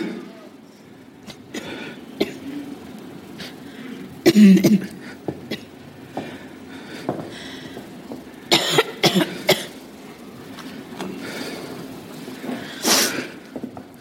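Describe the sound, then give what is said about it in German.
Several harsh coughs come in irregular bursts, with a noisy background rumble between them and a few shorter throat sounds scattered through. “du hättest einfach früher sollen zum Doktor mit dem Husten.”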